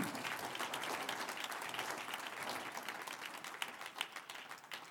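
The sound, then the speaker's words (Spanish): An audience applauds the Lord after a prayer, steadily for about five seconds, a dense wash of many hands clapping at an even level, with a few sharper individual claps standing out near the end. “Un aplauso al Señor.”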